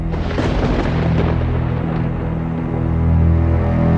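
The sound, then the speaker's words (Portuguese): A loud thunderclap from a lightning strike opens with a sharp crackling burst, then settles into a deep, sustained rumble that rolls on and swells again near the end. No voices. “Assim que terminou de falar, um relâmpago rasgou o céu, clareando ainda mais aquele quarto pútrido.”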